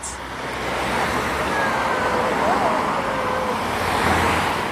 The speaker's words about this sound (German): Brumm, brumm, brumm, brumm. Autos fahren vorbei. Brumm, brumm.